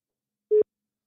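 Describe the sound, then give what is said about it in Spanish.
A single short telephone line tone, one steady mid-pitched beep lasting a fraction of a second, clear and alone against silence, as when a call is being placed. “vení, vení que vamos a hablar por teléfono.”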